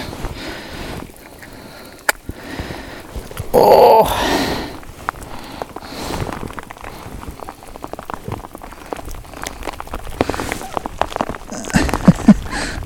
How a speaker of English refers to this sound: The rain is uh, is working its way into my little shelter. It's changed direction.